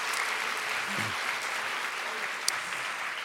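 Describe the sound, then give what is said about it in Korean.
Steady applause from a crowd fills the whole span, a dense, even patter of many hands clapping at moderate volume, with a brief low murmur near the start. “자, 오늘도 이사의 응원단장의 응원과 모든 의인들의 모든 응원의 박수를 받으면서 여러분 막 흥이 되고 막 은혜를 완차가 되죠.”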